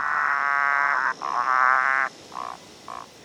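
frogs croaking

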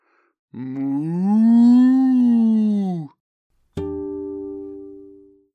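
cow mooing

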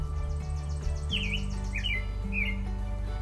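bird chirping

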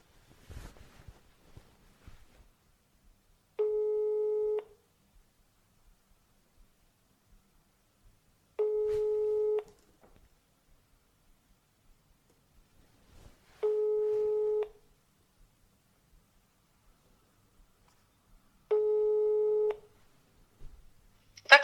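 telephone ringing tone

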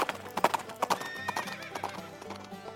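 horses galloping and neighing

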